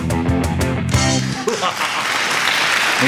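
Applause breaks out after a short tonal, music-like opening, becoming a steady, dense wash of clapping that stays fairly loud and even for the remaining couple of seconds.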